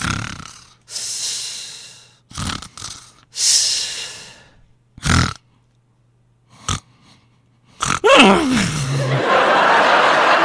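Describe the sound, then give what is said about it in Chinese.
A voice imitates uneven snoring: raspy, noisy breaths of varying length separated by irregular silent gaps, then a final long snort that slides down in pitch into a sustained hiss. “那基本上不稳定的打呼噜节奏就是这样的。”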